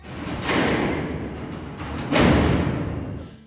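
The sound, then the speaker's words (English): Two heavy metal prison cell doors, associated with Alcatraz Island in the San Francisco Bay, slam shut in succession, each with a loud clanging impact followed by a long reverberant ring, with no voices. “Most people immediately think of the infamous inmates, cell doors slamming,”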